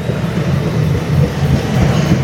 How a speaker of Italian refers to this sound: Il treno, il treno però, vi faccio sentire il treno perché sono alla stazione. Eccolo.